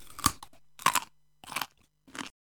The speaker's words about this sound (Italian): Giona guardò meglio e vide un verme che mangiava la pianta.